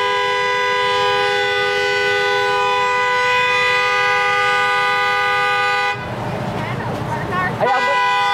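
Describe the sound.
A man honks his car horn, which blares loudly and continuously for about six seconds, then cuts off, leaving outdoor noise and a brief voice near the end.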